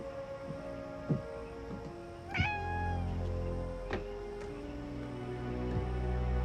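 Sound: cat meowing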